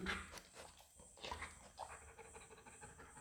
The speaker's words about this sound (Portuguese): É um parceirão, né? Muito companheiro esse cachorro.